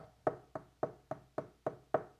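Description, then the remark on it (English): Seven steady knocks on a door, evenly spaced about a quarter second apart, each a solid, hollow thud with a short ring, moderately loud with no voices. “Graciously, graciously knocking on the door to let them know that they can invite them back in.”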